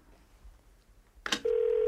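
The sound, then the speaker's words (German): A sharp click, like a phone receiver being picked up, followed by a steady, continuous telephone tone that holds loud until the end, with no one speaking. “Ich greife zum Telefon und jetzt habe ich wieder den King of Keys am Telefon”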